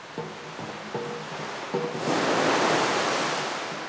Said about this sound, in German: Seine Wellenmaschine heißt Delta Flume. Flume heißt im Englischen Messkanal und Delta steht für die vielen Flussmündungen der Niederlande. Der Delta Flume produziert Brecher bis zu viereinhalb Metern Höhe. Aktueller Weltrekord für Wellenmaschinen.